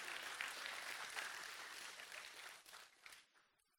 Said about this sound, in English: You can clap now. That's, that's good.